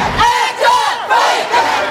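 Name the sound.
protest crowd chanting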